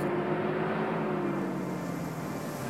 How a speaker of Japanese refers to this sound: 向かいからバスがのんびりとやってきて